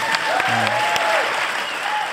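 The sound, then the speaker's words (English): A steady wash of audience applause, many hands clapping at once in a dense, continuous patter that holds at an even loudness, with a few faint whistled tones poking through. “And the, the, the, you know the applause should be for my control room.”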